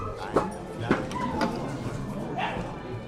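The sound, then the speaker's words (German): A dachshund barks several times at a breeding show of the German Dachshund Club, held in a rustic barn at the edge of a village in Brandenburg, south of Berlin: short sharp yaps spaced irregularly against a steady background of crowd murmur and voices. “Wir sind bei einer Zuchtschau des Deutschen Tackle-Clubs im Land Brandenburg südlich von Berlin.”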